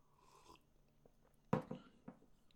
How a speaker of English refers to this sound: Uh, many years ago, let me take a sip of this coffee first.